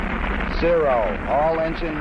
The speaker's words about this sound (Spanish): Todos los motores andando. Tenemos el despegue